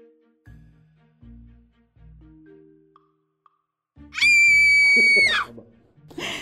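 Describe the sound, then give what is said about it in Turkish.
Low, soft vocal tones pulse a few times, then a person lets out a loud, piercing imitated scream lasting about a second, followed by breathy voice sounds. “Evet, Tam böyle, böyle bir çığlık atar.”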